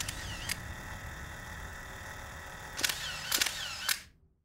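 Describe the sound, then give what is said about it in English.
A 35 millimeter film camera shutter snaps about six times while taking photos, at irregular intervals with a couple of quick pairs among them, each click crisp over a steady low background hum. “The other snaps photos with a 35 millimeter camera.”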